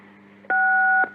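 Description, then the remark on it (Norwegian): A single telephone keypad tone sounds once as a number is keyed in, a steady two-pitched beep held for about half a second, then stops, with a faint low hum underneath throughout. “Taster et nummer.”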